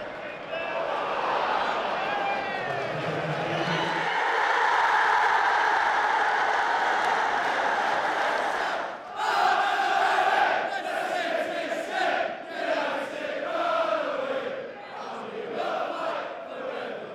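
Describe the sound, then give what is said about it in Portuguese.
A packed football stadium crowd of Manchester City fans roars and sings together in the second half after Agüero's goal, a loud, continuous wash of cheering voices with rising chants and shouted swells throughout, no single voice standing out. “Foram ao delírio aqui no estádio, voltaram a cantar.”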